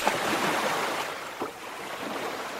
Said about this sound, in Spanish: Al rato, el mar, ignorando la orden del rey, comenzó a subir lentamente. La marea levantó las aguas y mojó las sandalias del rey, pero los súbditos seguían guardando silencio. Subió más y empapó el manto de lino blanco y púrpura.